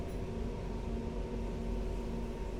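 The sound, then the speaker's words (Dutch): A train brakes and stops at Nijmegen-Lent station: a steady, loud rumble with a low droning hum and faint tonal whine, holding at an even level throughout with no voices. “De trein remt af en stopt.”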